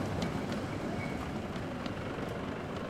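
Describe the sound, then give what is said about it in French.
A steady, low rumbling of an electric streetcar rolling along rails in the streets of Montreal around 1905, with faint metallic clicks and squeaks scattered through the continuous drone, without any voices. “À cette époque, les tramways électriques et les chevaux sont encore rois et maîtres dans les rues de la ville.”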